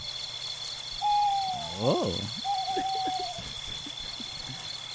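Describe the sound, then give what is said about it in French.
An owl hoots a few times, its calls sliding and wavering, with a brief exclamation from a person in between and a steady high insect-like hum in the background. Recorded in the woods. “Alors oui, euh, non, c'est un hibou.”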